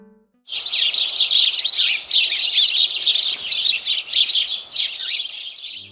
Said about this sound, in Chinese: 你猜对了吗？这是很可爱的小鸟的叫声，是不是很有精神、很有活力呢？